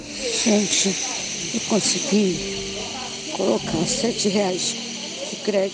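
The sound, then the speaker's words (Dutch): Steady, loud hissing of hospital breathing machines fills the background while a mother speaks in strained, breathy bursts in a voice message, breathing heavily and gasping for air between phrases. “Met op de achtergrond een enorm lawaai van de ja, ademhalingsapparaten.”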